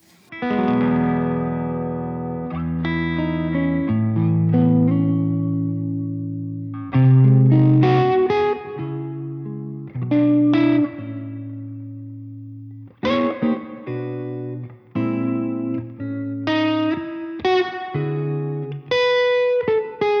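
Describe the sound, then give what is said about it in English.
An instrument plays sustained chords drenched in lush hall reverb, each note blooming and trailing into long, washy tails that overlap the next. It is loud, with no talking. “This is a hall reverb.”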